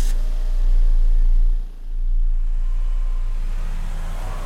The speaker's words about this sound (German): Auto gestartet, hinterhergefahren zur Wache.